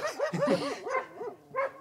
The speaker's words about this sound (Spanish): Eh... Em, eh, señorita, eh, ¿por qué ladran vuestros perros? ¿Hay osos en la ciudad?